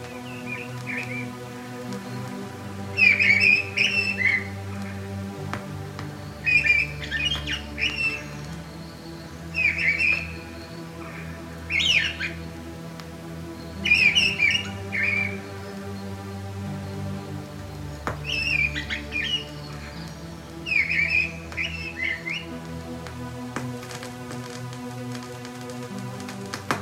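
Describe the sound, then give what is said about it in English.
A mistle thrush sings loud, fluting phrases in short bursts with pauses between, repeated about eight times, over a steady patter of rain or wind noise; no voices. “Mistle Thrush song.”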